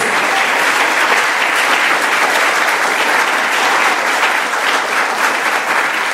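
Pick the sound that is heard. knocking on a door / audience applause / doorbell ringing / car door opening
audience applause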